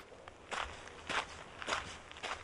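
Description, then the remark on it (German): Hard-soled footsteps crunch steadily on a gravel stone path, four evenly spaced gritty steps at a walking pace, moderately loud, with no one speaking. “Kiesel knirschen unter seinen harten Sohlen.”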